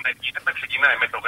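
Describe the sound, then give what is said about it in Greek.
A caller's radio, calling in from Pylaia, plays in the background over a phone line to a radio call-in show, its voices thin and tinny, chattering steadily without pause for a little over a second at a moderate level. “Χαμηλώστε λίγο το ραδιόφωνο, παρακαλώ.”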